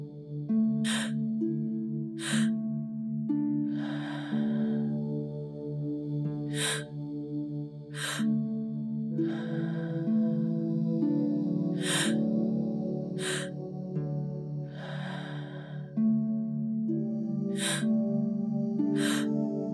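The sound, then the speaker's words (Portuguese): Sharp, forceful breaths from a breathwork exercise repeat in a steady rhythm, quick huffs alternating with longer whooshing exhales, prominent over a sustained, droning musical background. “retornando sua respiração normal.”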